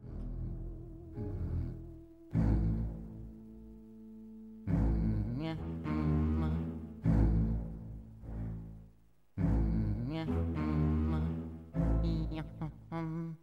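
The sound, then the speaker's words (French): Instrumental video game soundtrack music plays: loud, sustained chords in a low, rich register, swelling in repeated phrases separated by brief pauses, with no voices. “Pour cette sélection, nous avons choisi d'intégrer un passage d'environ 1 minute, 1 minute 30 par musique.”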